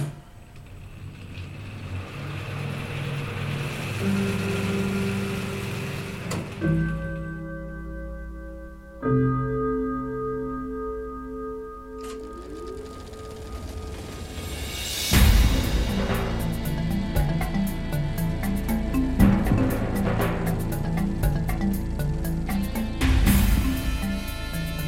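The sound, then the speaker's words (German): A cinema film projector motor is switched on to start the main feature, its lamp lit at 90 amperes, running with a steady mechanical hum and faint whine, then swells into a louder, fast rhythmic clatter as the mechanism spins up. No voices. “Gleich Richter 1 einschalten bitte, die Lampe zünden bitte, Richtstromstärke 90 Ampere und Motor an. Achtung, Startband, noch 6, 5, 4, 3, 2, 1 und Vorhang auf.”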